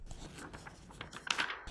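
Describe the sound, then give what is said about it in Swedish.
Paper rustling and crinkling builds into a short, sharp tearing burst near the end as an envelope holding a quiz answer is ripped open to verify it. No one speaks. “Och för ordningens skull så tycker jag att vi ändå tar öppna kuvert bara för att liksom verifiera svaret.”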